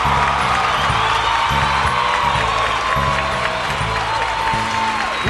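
A clicked-on applause sound effect: a crowd cheers and claps steadily throughout, with whoops and shouts rising over a dense, loud wash of applause and a rhythmic low thumping underneath.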